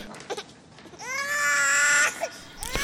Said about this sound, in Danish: så begynder … at græde rigtig, rigtig højt